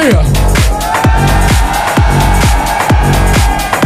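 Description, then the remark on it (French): A big crowd at the Corotel Arena in France roars loudly and continuously, with rhythmic pulses of shouting or stomping surging about twice a second throughout. “Est-ce que la Corotel Arena peut faire du bruit”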